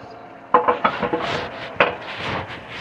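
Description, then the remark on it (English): A knife chops onions against a wooden cutting board, a quick uneven run of sharp taps followed by one more chop, with soft scraping and shuffling between and after. “Right, I'm chopping up onions.”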